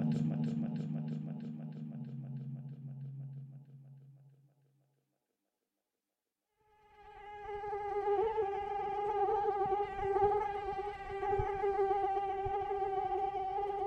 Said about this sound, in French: Les moustiques peuvent être terriblement agaçants.